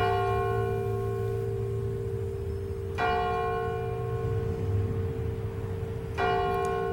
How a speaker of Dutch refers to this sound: De klok van de nabijgelegen Vredeskerk sloeg zeven keer.